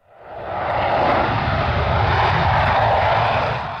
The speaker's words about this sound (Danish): Det er selvfølgelig lyden af F-16-fly, der letter, og det er den slags fly, som Danmark vil donere 19 af til Ukraine.